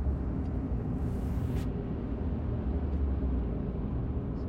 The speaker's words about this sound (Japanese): たくさんいる車列の中に、うん、混じってですね、えー、仕事場に移動してるわけですけれども